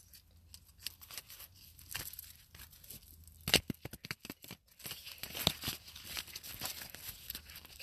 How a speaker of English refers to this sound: So right now I'm just shuffling the cards. This is going to be for client number 6.